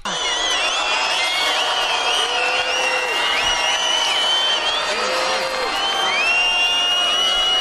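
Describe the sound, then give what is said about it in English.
A large crowd at the Israel Festival loudly and continuously boos a woman speaking against performances that go against basic moral values, many voices overlapping in long, wavering jeers that hold steady for several seconds without a break. “You hear, she says, I'm against performances that go against our basic moral values, and she just starts getting booed on and on.”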